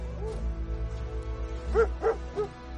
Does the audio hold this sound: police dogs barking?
yes